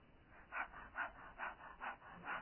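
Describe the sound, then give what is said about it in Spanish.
A person demonstrates the typical dog-like panting breathing technique with quick, rhythmic breathy huffs, about six in steady succession, moderately loud with no talking. “La típica respiración del perrito, el jadeo, ¿verdad?”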